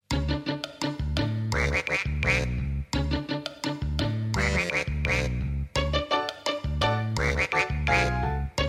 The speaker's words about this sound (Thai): กากากาเป็ดอาบน้ำในคลอง ตาก็จ้องแลมอง เพราะในคลองมีหอยปลาปู